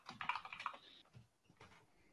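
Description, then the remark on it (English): A flurry of rapid computer keyboard typing, fast clustered keystrokes, then a few scattered, softer key taps trailing off. “Rosie is smacking his hands against his keyboard. I'm not. I'm just typing, bro.”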